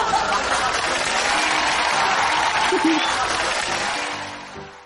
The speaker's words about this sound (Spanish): Aplausos.